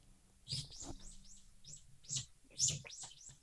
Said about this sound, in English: Oh, somebody have a bird? What's going on? Uh, sorry, that's me. Do you have a bird? It's outside. Oh, that, the window.